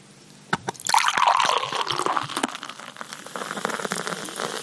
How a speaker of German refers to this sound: Ah, das hört sich immer schön an. Vollmundiges Einschenkgeräusch. Ein, ein Schaum, der irgendwie gerade ein Viertel, ja, ein Drittel ausmacht.